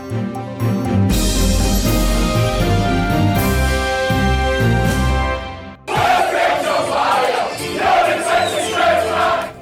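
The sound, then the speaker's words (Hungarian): Loud football fans cheer and chant together in a British pub, a rowdy wall of voices bursting in after several seconds of steady, tonal music and swelling in waves until the end. “Futball szurkolói felvételekkel illusztrálták a Kercsi híd minapi felrobbantásáról szóló tudósítást a Hír tévén.”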